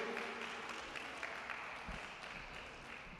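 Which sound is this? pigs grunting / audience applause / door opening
audience applause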